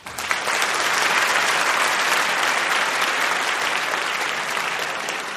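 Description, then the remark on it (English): Sustained audience applause at a debate, welcoming Jack Abramoff of the team arguing for the motion, a dense, steady wash of many hands clapping at an even loudness for about five seconds, with no voices standing out. “So, you may remember you were spontaneously applauding at the time.”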